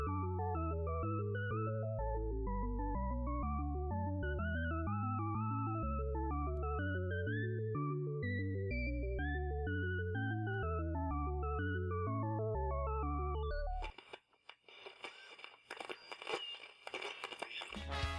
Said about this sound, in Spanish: Es decir, foca giratoria FM, las 24 horas del día, la cual se dedica a transmitir única y exclusivamente en bucle la canción del video de la foca giratoria sobre su propio eje en el agua. ¿Qué cosas, no? Y aquí les dejo un poco de la canción.